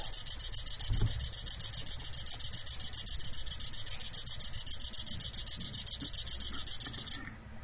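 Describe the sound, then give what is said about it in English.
A 'cricket' liquid level indicator chirps like a cricket in a rapid, continuous high trill, speeding up as liquid is poured toward full, with faint pouring underneath before the chirping cuts off at the end. “the cricket noise speeds up.”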